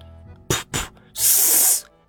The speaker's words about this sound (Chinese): 我走到收音机前，按了一下开关按钮，收音机发出了一长串噪音。